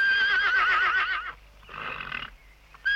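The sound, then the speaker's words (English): A horse whinnies loudly, a long quavering call with wavering pitch, followed after a short pause by a second, breathier and weaker neigh. “Then he whinnied a little and stepped towards him.”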